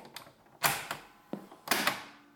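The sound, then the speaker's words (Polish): A cassette recorder's mechanism clunks and whirs as the tape rewinds to the beginning of a recording, with sharp clicks and two short bursts of mechanical rattling. Fairly quiet, and no one speaks. “Teraz przewinę nagranie do początku.”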